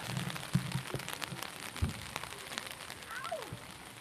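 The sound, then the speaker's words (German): Steady rain patters and drums on a taut tent roof during a camping holiday, a dense crackle of drops with occasional heavier taps, continuous and fairly loud with no voices. “Genau, kein Tag ohne Regen in diesem Urlaub.”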